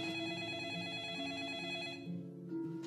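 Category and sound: signal or alarm, telephone bell ringing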